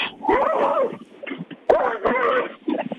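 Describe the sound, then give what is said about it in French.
A small dog yelps and whines in sharp, wavering bursts amid scuffling as a bigger dog attacks it while it eats a cake, with two agitated stretches of vocalizing separated by a brief lull, fairly loud. “Oh, le chien n'est pas content.”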